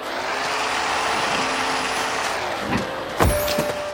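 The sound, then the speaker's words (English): A steady, loud motor roar of remote-control cars racing in a video game fills the whole stretch, with a couple of quick whooshing passes and a thin high whine near the end. “Racing RC cars”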